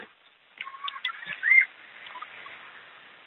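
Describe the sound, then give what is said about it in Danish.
A falcon's cry rises sharply near the middle, a brief piercing call among softer scattered chirps, with a thin, band-limited quality and no talking. “Jo, det er et falkeskrig.”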